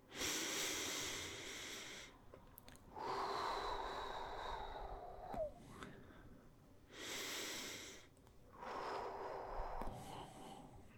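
Slow, deep breaths drawn in and pushed out, loud, alternating in a steady rhythm over several cycles, with a slightly wheezy, snorting edge on the inhales.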